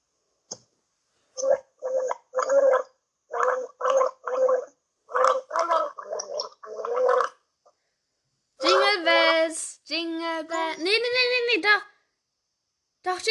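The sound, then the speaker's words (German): Someone gargles water in a rhythmic run of short bursts that trace the melody of Jingle Bells, fairly loud, ending with a longer, bubbling stretch of gurgling. “Jungle Bells, ne?”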